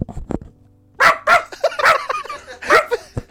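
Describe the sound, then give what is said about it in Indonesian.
A person imitates a dog, giving a rapid run of loud barks and yips, several bursts in quick succession with brief pauses between them. “Lu gak tau kan gonggongan gue mirip sama anjing.”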